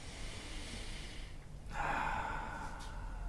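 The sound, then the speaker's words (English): During a breathing exercise, a deep breath is drawn fully in, a brief pause follows, then a fuller, louder exhale rushes out, with no talking. “fully in and let it go. Breathing in.”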